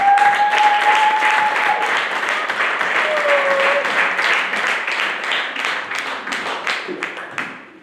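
Sustained audience applause, many hands clapping in a dense, steady wash that stays loud for several seconds before gradually thinning out, with a few whistles and voices mixed in.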